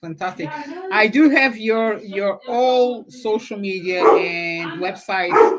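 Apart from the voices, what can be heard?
dog barking excitedly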